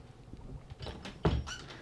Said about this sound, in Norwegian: Vent litt, jeg må bare fikse døra her.